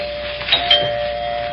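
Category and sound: household object, doorbell ringing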